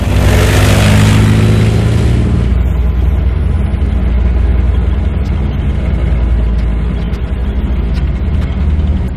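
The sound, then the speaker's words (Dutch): A Leopard 2A6 tank of the Royal Netherlands Army, weighing 60 tons with a 120 mm gun, revs its heavy engine loud, opening with a harsh, hissing roar that settles after a couple of seconds into a deep, steady rumble. No one speaks. “De Leopard 2A6 is met zijn 60 ton aan gewicht en 120 mm kanon een waar beest op het slagveld.”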